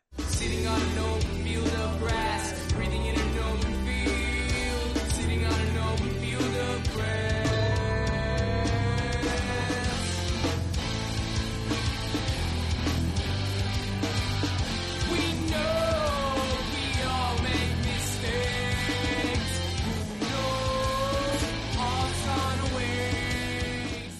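A loud, full-band rock song plays throughout, with driving drums, dense distorted guitars and a melodic vocal line soaring over the steady beat.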